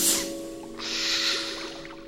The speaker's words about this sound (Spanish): Así, respirando profundamente, tu cerebro se tranquiliza y tus movimientos también.